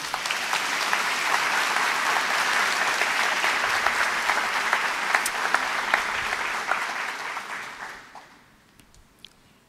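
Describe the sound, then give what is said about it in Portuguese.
A church audience claps steadily together for God during a sermon for about eight seconds, a dense, bright wash of many hands that then quickly dies away to a few scattered claps and near silence. “Você pode aplaudir ao nosso Deus?”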